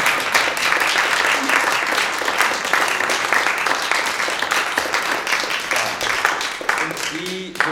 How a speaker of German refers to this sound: Und wie gesagt, also die drei, vielleicht haben sie doch nochmal gemeinsam einen vollständigen Applaus verdient.